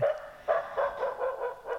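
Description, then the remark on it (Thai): A puppy barks in a rapid run of about six high, yappy barks, fairly loud, each short bark followed by a brief pause before the next. “ส่วนเสียงนี้ค่ะคือเสียงที่เห่าติดต่อกันเป็นเวลานานๆ เห่าแล้วก็หยุด เห่าแล้วก็หยุดนี่เป็นเสียงของลูกหมาค่ะ เจ้าลูกหมาน้อยเนี่ย มักจะเห่าใส่อะไรที่เจออย่างเช่นเจอคางคกเห่ากระทั่งใบไม้ที่พัดไปพัดมานะคะ”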